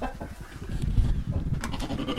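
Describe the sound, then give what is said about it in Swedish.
Sheep bleat in a barn, several overlapping calls in a busy, continuous chorus with one clearer wavering bleat standing out near the end, set against steady low rumbling background noise. “Ja men, ja men vi står i, i stallet här nu med, med fåren.”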